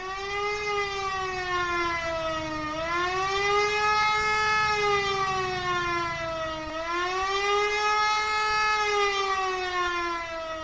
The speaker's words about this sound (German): Ein einminütiger auf- und abschwellender Heulton gilt als Warnung für die Bevölkerung.